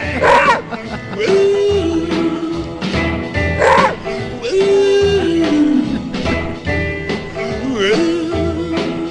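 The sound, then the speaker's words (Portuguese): Dog-like howls rise and fall about three times over a dense, loud musical backing, each wail stretching out for a second or so, prominent in the mix. “gente emenda um convidado aí pra uivar com a gente.”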